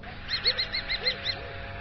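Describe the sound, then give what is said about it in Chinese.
A falcon calls out from the woods in a quick run of about seven sharp, high-pitched notes, with a few softer, lower cries underneath, moderately loud and with no voices present. The falcon keeps flapping its wings but cannot fly, its claws tangled in a net. “他循声望去，看见了一只猎鹰。”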